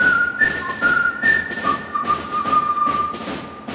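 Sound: whistled melody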